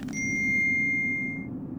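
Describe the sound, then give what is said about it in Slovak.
A single bright electronic ding from a phone signaling a message, its clear tone hanging and slowly fading over about a second and a half above a low ambient hum. “Tok myšlienok preruší zapípanie telefónu.”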